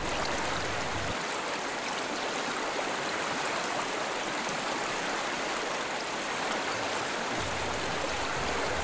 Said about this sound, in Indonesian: Malam itu gerimis tahan lama.